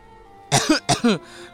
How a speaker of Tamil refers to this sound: அம்மா என் இருமல் என் சளி குணப்படுத்தவே முடியாதா